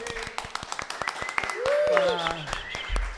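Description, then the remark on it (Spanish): A crowd applauds at a first live edition event, thanked for coming, with a steady patter of overlapping claps, moderately loud throughout, while a voice rises briefly over the clapping partway through. “Eh, y lo más importante de todo, gracias a ustedes por haber venido. Un aplauso”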